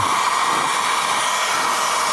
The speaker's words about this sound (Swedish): Nu hör ni ett dammsugarljud alltså.